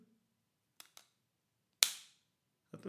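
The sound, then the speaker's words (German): An AirPods charging case snapping shut: two light, quick clicks followed by one sharp, crisp snap that rings off briefly, then a short rustle at the end. No one speaks. “Ähm, und zwar, das sind die EarPods von Apple. AirPods.”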